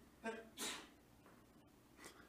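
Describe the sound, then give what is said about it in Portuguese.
A single sharp sneeze, preceded by a short voiced inhale, bursts out fairly loud, followed by a quiet breathy exhale a moment later. “Saúde.”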